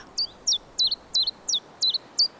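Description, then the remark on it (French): Common chiffchaff, a small migratory passerine, song: seven high, clipped notes repeated at a steady, even pace, each a quick sliding chip, sung clearly over a faint low background hiss with no voices. “Vous avez sûrement croisé un pouillot véloce.”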